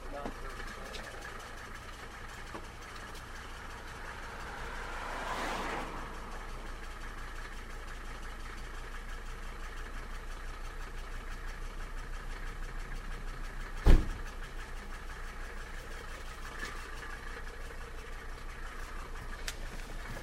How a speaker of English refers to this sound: car seemed a lot noisier than usual. Maybe not a lot, but noisier.